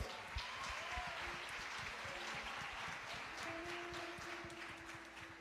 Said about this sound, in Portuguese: Aleluia! Aplauda o Senhor Jesus!